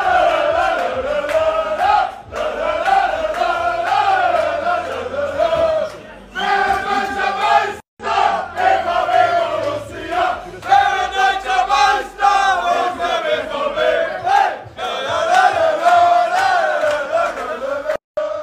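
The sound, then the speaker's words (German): FC Bayern München football players loudly chant a song together in unison, rowdy and continuous, with whoops and shouts breaking through, echoing. “Ja, das wurde nicht gesungen in der Kabine von Borussia Dortmund, sondern beim FC Bayern München, bei den Spielern, von denen ich den Eindruck hatte, die wussten gar nicht, wie ihnen geschieht.”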